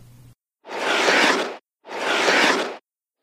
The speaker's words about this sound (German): Und? Hast du das Geräusch erkannt? Dann hast du es sicher selbst schon einmal ausprobiert. Schlittschuhlaufen.